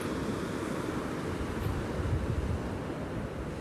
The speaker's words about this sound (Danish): Drengene står nu helt tæt på brændingen på vandkanten og kigger ud over bølgerne, som i dag er stille og rolige og meget harmoniske. De små bølgetoppe knækker først og bliver hvide, når de kommer ind over den første revle.